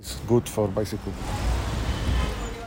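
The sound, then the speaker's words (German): Steady low rumble of street traffic in Cairo, Egypt, on a Friday morning, growing denser and louder toward the city centre, a continuous wash of passing cars; a voice speaks briefly over it at the start, then the road noise carries on alone. “Auch wenn es auf den Straßen am Freitag, dem freien Tag der Ägypter, erst noch recht ruhig ist, je näher ich dem Stadtzentrum komme, desto dichter und lauter wird der Verkehr.”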